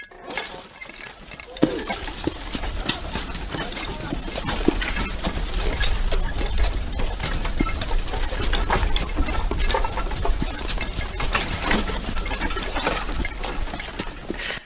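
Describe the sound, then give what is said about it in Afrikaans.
Steady hoofbeats of an early horse-drawn ambulance clop along with jingling harness and a rattling wooden cart, over a constant low rumbling of wheels, fairly loud throughout with no speech. “Bedank op daai stadium so iets kon klink.”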